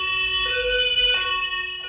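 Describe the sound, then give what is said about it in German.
A loud two-tone police siren (German Martinshorn) alternates between a lower and a higher pitch, steady, with faint road rumble underneath and no voices. “Ein bestimmtes Horn gibt es auch im Straßenverkehr, das Martinshorn.”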